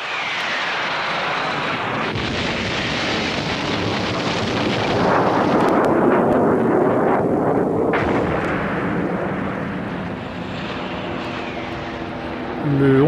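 Dense, continuous rumble of war during the bombardment of the presidential palace: aircraft engines roaring overhead amid repeated heavy explosions and artillery booms, loud, swelling in the middle before easing slightly, with no speech.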